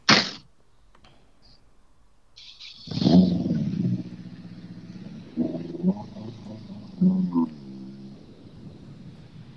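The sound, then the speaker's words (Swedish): A competition car engine, running on all four cylinders again, idles with a low, throaty rumble and revs up sharply in several bursts, each rise falling back to a rough idle, after a short sharp noise at the start. “Nu går den ju på fyra cylindrar igen så det, det, känns bra.”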